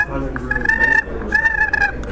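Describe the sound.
Two short, rolling purrs played on a turkey box call, fairly loud, each a rapid fluttering rattle lasting about half a second, separated by a brief pause.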